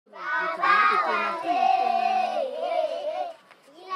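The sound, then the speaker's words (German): A lively group of 28 children shouting and calling out together as they play in front of a mud house on a hill near the village of Fiadanana, Madagascar; their high voices overlap loudly and continuously before trailing off near the end, with an open outdoor feel. “28 Kinder spielen vor einem Lehmhaus auf einem Hügel in der Nähe des Dorfs Fiadanana in Madagaskar.”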